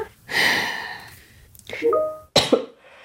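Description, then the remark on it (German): A harsh coughing fit: a long raspy cough followed by two or three more rough, strained bursts in quick succession, with no talking in between. “Mir komme ich aus dem Husten gerade nicht mehr raus.”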